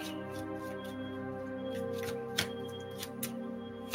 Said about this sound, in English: Let's go to Pisces and Pisces rising. Then I'm gonna pull some oracle cards.